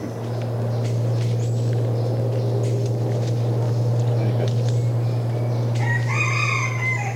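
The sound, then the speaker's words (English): Birds call outdoors, with scattered chirps throughout and a loud rooster-like crow near the end, all over a constant low droning hum. “I do not remember so many birds here.”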